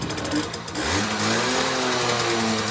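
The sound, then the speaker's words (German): A small two-stroke Simson Schwalbe KR 51 moped scooter engine of three horsepower, running on a petrol-oil mix, runs steadily, its buzzing, rattly drone rising in pitch as it revs up and then holding a high, insistent whine. “Diese Schwalben werden von drei Pferdestärken vorangetrieben, werden mit markant duftendem Benzin-Öl-Gemisch betankt und betören durch elegant geformte Kniebleche”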